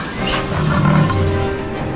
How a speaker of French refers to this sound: Oh purée, un, léopard. Et, là, oh, un tigre.